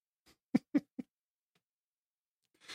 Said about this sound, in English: I'm laughing because you can hear the dog barking in the background